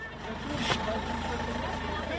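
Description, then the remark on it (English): Low, steady engine rumble of two small buses pulling out into the street between a school and an olive grove, with a murmur of voices and street noise in the background throughout. “Two small buses pull out in the street between the school and the olive grove.”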